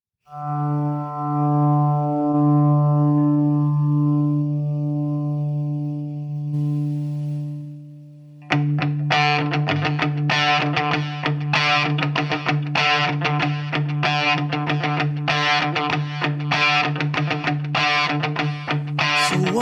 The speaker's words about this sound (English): it came out in 1996. And this song, if you've never heard it before, hey, you're in luck. You're going to like this.